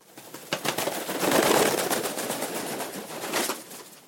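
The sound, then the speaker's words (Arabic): A seagull's wings flap hard as it takes off, a quick run of soft, papery beats that flutters and swells, then carries on as a steady whir with no voices. “نطت ميرا وحركت جوانحها وطارت صوب كيس الورق”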